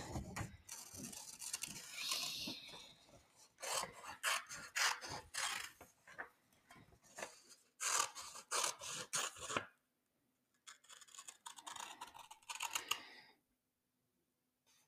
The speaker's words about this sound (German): schneiden wir das hier kurz grob aus. Doch, Digga. Also grob auf dem weißen Papier.